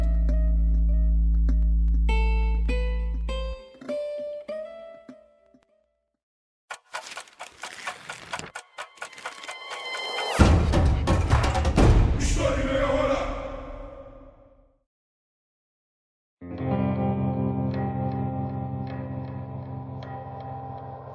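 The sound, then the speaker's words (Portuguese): A short intro jingle: a deep held tone under a rising run of plucked notes, then a stretch of rapid ticking percussion, a brief pause, and a bright sustained chord to finish, with no talking. “Roda a vinheta em Portugal e vambora!”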